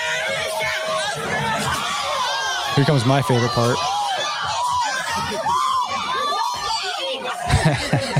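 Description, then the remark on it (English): A loud, dense crowd shouts and screams chaotically during a brawl for the whole stretch, many overlapping voices with sharp yells spiking near the end, while one person briefly talks over the din; police stand within the crowd trying to break it up. “uh, and there's it's funny though because there's police and they can't even they're just like standing within the crowd trying to break it up but it's it's like they're just like we're just gonna let this one play out for a second”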